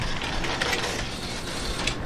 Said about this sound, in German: Es ist 5.30 Uhr morgens. Remy nimmt die Bergbahn auf den Gipfel.